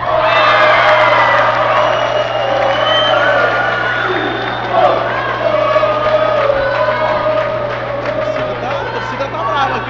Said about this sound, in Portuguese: A torcida do São Paulo aqui no ginásio.